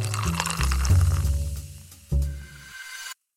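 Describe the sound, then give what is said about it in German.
A fresh, sweet, fizzy drink is poured into a glass, a gurgling stream with a bright, crackling fizz over it, pausing briefly before a second splash, then the bubbling hiss fades out. “Und mit dabei habe ich jedes Mal ein frisches Getränk, um meinen Wissensdurst zu stillen.”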